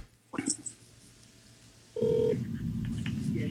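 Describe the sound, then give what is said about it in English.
A phone line clicks and beeps briefly as a citizen journalist dials a call to a US Navy office from Washington State, then a steady ringback tone sounds over a sudden wash of line hiss and noise. “There's a clip by a, a citizen journalist who calls the Navy office.”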